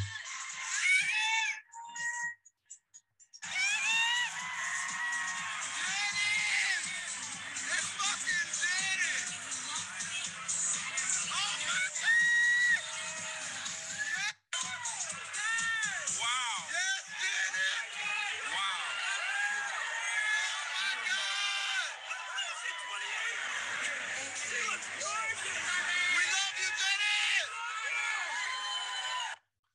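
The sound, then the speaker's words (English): A dense crowd of fans, including the recordist, screams and shrieks loudly and almost nonstop on first seeing a singer in person at an event, high excited voices piling over one another, with a brief lull near the start and a momentary cut midway. “like why am i screaming like that”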